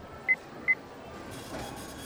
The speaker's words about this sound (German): Äh, ja, ja, hier haben Sie meine Karte, bitte. Danke sehr. Wenn Sie dann jetzt noch hier Ihren PIN-Code eingeben